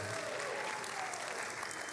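A church audience claps steadily in a dense wash of applause, cheering for its staff, pastors, leaders and volunteers, with faint cheering voices mixed in, sustained at an even level throughout.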